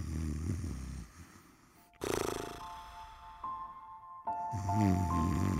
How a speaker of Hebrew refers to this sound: אוי, הוא נרדם. יש לו נחירות, חשבתי שעבר פה אוטובוס, ובכלל עוד לא המציאו את האוטובוס!